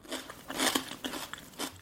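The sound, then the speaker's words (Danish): Crisp, crunchy biting and chewing, a rapid series of brittle cracks and crackles with a few louder crunches, no voices. “Smager”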